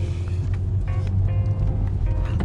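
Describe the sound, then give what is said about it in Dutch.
A car brakes to a stop at a zebra crossing, its steady low engine rumble continuing throughout while a few short, thin tonal whines rise briefly above it, moderately loud with no voices. “ja, zebrapad, even remmen, even aangeven dat ik rem.”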